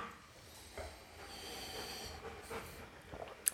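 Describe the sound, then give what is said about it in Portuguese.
A large dog breathes and pants close by, a steady series of raspy, snuffling breaths with an occasional snort, fairly quiet and with no voices. “esse cachorrão que fica às vezes respirando aqui do meu lado, né? Aquela respiração de cachorro”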